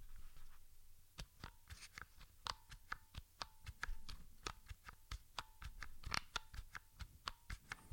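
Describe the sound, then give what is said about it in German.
Keys on a keyboard are pressed in a steady run of sharp clicks, often in quick pairs, with at least two keys pressed at once at evenly spaced intervals, fairly crisp with a faint background hiss and no one talking. “Ich versuche einfach mal einen möglichst gleichen Abstand einzuhalten und drücke immer mindestens zwei Tasten gleichzeitig”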